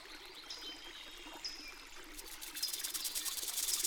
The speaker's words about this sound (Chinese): 他们终于听见熟悉的小溪流声，回到了最开始出发的山谷。